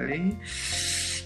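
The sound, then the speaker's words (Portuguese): A dog licking its tail, a steady wet, hissing rasp that runs on for about a second after a short burst of voice at the start. “Uh, pronto, este é o cão mais, mais silencioso do mundo, portanto não é difícil fazê-lo ladrar, mas ele continua a lamber o rabo.”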